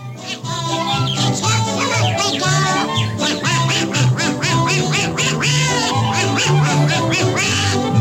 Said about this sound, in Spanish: ¿Tú sabes que otro personaje de Disney le hizo una versión? ¿Quién? El Pato Donald.